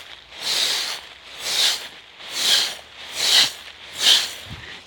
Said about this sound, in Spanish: es el, sonido típico, De, caminar entre hojas secas en otoño y, bueno, muy, muy gratificante.